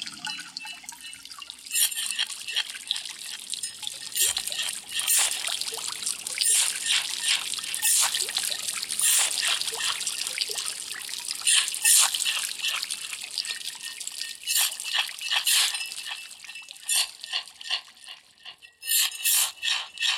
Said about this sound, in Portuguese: cavaram tanto que acordaram um rio que dormia embaixo da terra. A água ela não é boba que nem a terra. Ninguém mexe com ela. Foi logo inundando tudo aquilo ali.